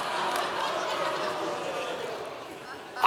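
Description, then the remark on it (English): A large crowd reacts with a steady mix of cheers and boos to the speaker saying he is from New York City and supports the Yankees, a dense roar of many voices holding for several seconds at a fairly constant level, with no one speaking over it. “I hear cheers. The only thing I hear, I hear cheers. So if you're booing, no, that was a little, you see, I told you it was going to be ornery.”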